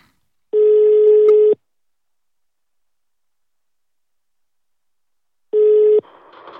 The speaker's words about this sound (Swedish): Nu vet jag inte om detta funkar riktigt, men vi testar. Nu eh, ringer vi